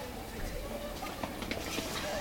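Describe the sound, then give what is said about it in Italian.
Quick, scattered footsteps of several children running across a floor chessboard in a game, swapping places with classmates without touching, a busy patter of light thuds with faint chatter and murmuring voices in the background. “Adesso lo facciamo correndo, via.”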